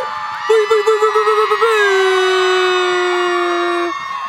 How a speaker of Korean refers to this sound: 오 여러분 오픈 스튜디오 마이크 열려 있었네요. 오픈 스튜디오 마이크 열려 있어요. 우리 엔젤 소리 질러! 아 오늘 소리 많이 질리시네. 역시 역시 목소리 좋아.